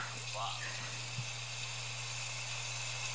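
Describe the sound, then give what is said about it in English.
Heavy rain pours down at a house in a dense, steady hiss that fills the whole clip without letting up, with a low electrical hum running underneath. “That's how hard it was raining at my house.”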